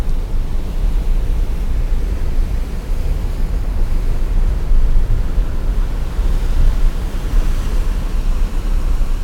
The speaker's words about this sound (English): Another is the wind blowing hard on the Irish coast.